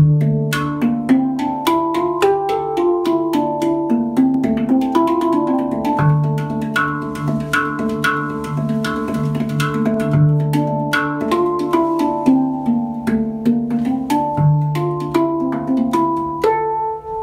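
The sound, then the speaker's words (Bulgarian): A tuned metal handpan (hang drum) played with no talking: a steady flow of gentle struck notes forming a melody, each tone ringing out and overlapping warmly with the next. “Хенгдръм (хенд пан) - история, звукоизвличане”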